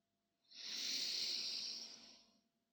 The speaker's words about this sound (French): Et pour cela, vous allez prendre une grande inspiration par le nez en gonflant le ventre et la poitrine.